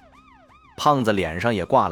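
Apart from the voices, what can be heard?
police car siren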